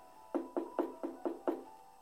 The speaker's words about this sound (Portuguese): As batidas na porta continuavam.